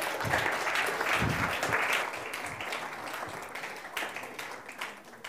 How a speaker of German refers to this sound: Applaus